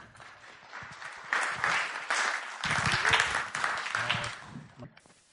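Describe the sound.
An audience breaks into applause to welcome a speaker, a dense wash of clapping that swells and holds steady for several seconds, with a few voices and cheers mixed in before it tapers off.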